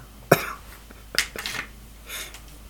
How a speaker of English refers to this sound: Is that it cocking itself? What's that? Is that it cocking itself? I just I, I took the magazine out, and I'm I'm inserting it back in.